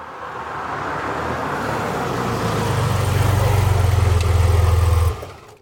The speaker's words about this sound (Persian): تا صدای ماشین رو شنیدم روپوش روسری رو پوشیدم از پله ها سرازیر شدم.